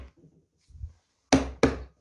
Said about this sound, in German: Au. Alle auf den Tisch klopfen. Jetzt. Au.